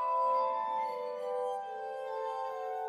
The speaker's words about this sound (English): Whatever Mesmer was doing with his patients in Vienna, it almost certainly involved his glass harmonica. For one, he always maintained that its sonorous song helped the process.